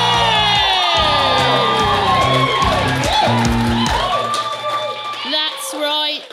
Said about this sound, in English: and welcome to this week's very special episode of the Proper Class Podcast, coming at you live from Hoxton Hall, baby. Make some noise, Hoxton!